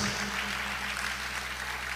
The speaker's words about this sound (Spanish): Dale un fuerte aplauso de Reyes Reyes, Señor de señores.